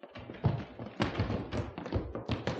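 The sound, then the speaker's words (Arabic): Heavy thuds strike a door about five times at a steady, insistent pace, fairly loud, as people try to break down the doors of a house, with no voices. “ما تكسروش الابواب انا هفتح لكم الباب”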